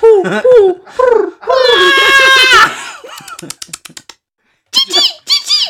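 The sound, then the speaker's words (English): A voice imitates a generator with a steady, buzzing drone, framed by high squeaky vocal noises and a quick run of clicky sputters, loud, with no words. “It's supposed to be a generator.”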